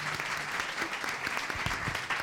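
A crowd applauds steadily, a dense wash of clapping hands that holds an even level throughout, with a faint murmur of voices underneath.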